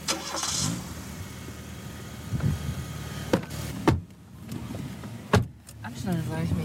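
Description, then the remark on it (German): Rustling and a few solid car-door thuds as people climb into a farmer's car, followed by the engine turning over and settling into a low rumble. “Also wir steigen bei Ihnen ins Auto, oder? Okay, brauchen wir einen Schlüssel.”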